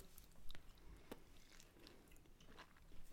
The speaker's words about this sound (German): Hoffentlich hört man uns nicht schmatzen.